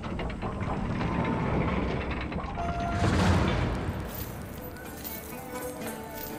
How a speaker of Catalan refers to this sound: Baixeu el pont llevadís.